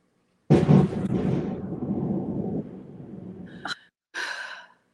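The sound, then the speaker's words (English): A sudden burst of thunder outside breaks out and rolls on as a low, loud rumble for about three seconds, shaking the room, then fades; a brief breathy gasp follows near the end. “Wait, was that lightning”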